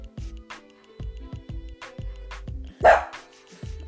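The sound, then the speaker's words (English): A dog named Abu barks repeatedly in short, sharp bursts, with one louder, higher yelp near the end; no one speaks over it. “That's my dog, y'all.”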